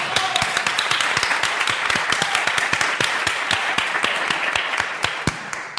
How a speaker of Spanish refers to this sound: Tampoco es para tanto, ¿vale? estamos alargando mucho un aplauso